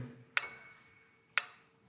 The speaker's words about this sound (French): une horloge grand-père. Le poids central commande le mouvement des heures.